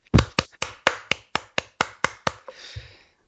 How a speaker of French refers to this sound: Donc, euh, donc voilà, maintenant vous pouvez l'applaudir bien fort, même si vous avez, euh, vous avez raté.